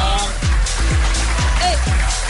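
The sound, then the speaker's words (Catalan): A loud, punchy radio theme jingle with a steady beat: low swooping thumps land about twice a second over a bright, dense backing, with no voices. “Avui tornem a escoltar aquesta sintonia que ens posa tots drets.”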